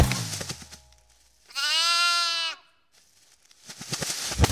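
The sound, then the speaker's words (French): A single sheep bleats loudly, one quavering, drawn-out cry of about a second, framed by scuffling, rustling noises before and after. “Vite, il court, mais les moutons belles, ça le surprend”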